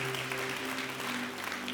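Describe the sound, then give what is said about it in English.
A room full of people applauding a person welcomed into the family of God, dense steady hand clapping that fills the whole stretch, with a faint sustained organ-like tone humming underneath. “Come on, give him another hand clap.”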